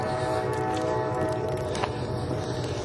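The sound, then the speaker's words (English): A train rolls through town, a steady, loud rumble and clatter with a sustained tonal whine layered over it for the whole stretch, no voices. “Train coming through town.”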